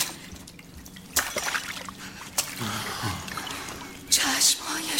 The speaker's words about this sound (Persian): آب چه شد؟ این جام آب بر صورتش بریزیم